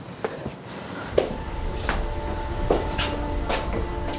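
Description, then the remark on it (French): The heavy door of Notre-Dame church opens as people enter on the south side, through the south transept arm, with a few sharp clunks and knocks, a faint sustained creak-like tone, and a steady murmur of ambience underneath; no one speaks. “Alors par quelle porte on rentre On rentre côté sud, donc euh, par le bras sud du transept.”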